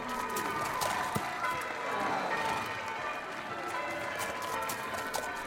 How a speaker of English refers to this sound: It's the sound of pomp and ceremony, the sound of a great big procession of horses and carriages and soldiers and people, the sound of church bells ringing and crowds cheering, the sound, my friends, of a coronation.